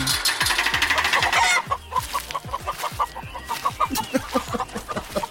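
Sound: hens clucking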